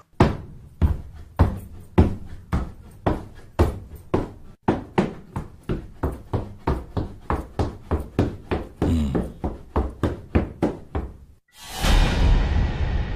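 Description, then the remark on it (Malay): Quick, heavy footsteps of someone running thud up the slatted wooden stairs of a house in the morning, in a steady, hurried rhythm for several seconds, each step a hollow knock, before a loud sustained rushing noise cuts in at the end. “Dengar bunyi tapak kaki orang lari naik tangga dan saya yang dekat dapur ni tiba-tiba berhenti dalam hati.”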